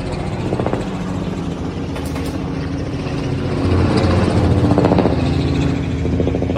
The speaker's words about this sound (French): le bruit que vous entendez présentement, c'est un bruit d'hélicoptère et euh, ça a été enregistré, si je comprends bien, tout simplement avec un, téléphone mobile par notre prochaine invité euh, qui dit en avoir assez euh, de ces bruits d'hélicoptère